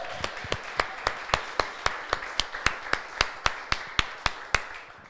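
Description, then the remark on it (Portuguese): A church audience claps for the Lord Jesus together in a steady, fast rhythm, roughly four sharp claps per second, with a continuous wash of crowd noise underneath and no talking. “Aplaude o Senhor Jesus. Isso, pode aplaudir.”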